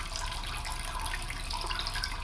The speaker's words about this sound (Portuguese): É uma pia, uma torneira. Deve tê-la aberto, mas não lembra.